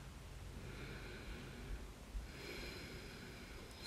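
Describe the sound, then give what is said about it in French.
Slow, steady, conscious breaths drawn through the nose, with a soft airy inhale and then a longer exhale, quiet, with no talking. “Peut-être prendre quelques respirations en conscience.”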